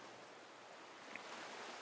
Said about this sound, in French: peut-être le son des vagues, peut-être les reflets hypnotiques de la lumière à la surface de l'eau, ou peut-être autre chose.